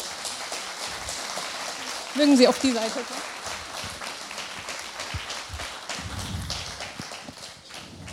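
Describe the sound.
Steady audience applause for several seconds, a dense patter of many hands, welcoming a crab fisherman from Bremerhaven as a guest speaker, while a man speaks briefly over it.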